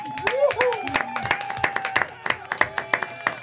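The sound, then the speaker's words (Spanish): Applause from a small group on the YouTube show Vive tu Historia, called for by the host to welcome guests: a steady run of sharp, irregular claps lasting a few seconds, with a voice calling out over the opening moments. “¡Familia, aplauso!”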